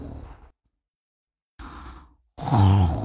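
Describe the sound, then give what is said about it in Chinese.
A voice imitates a big mouse snoring in bed, with three breathy exhales separated by silent pauses. The last one is loudest and carries a low, rumbling, voiced snort. “嗯，大老鼠，大老鼠，你在打呼噜。”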